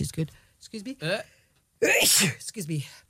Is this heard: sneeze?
yes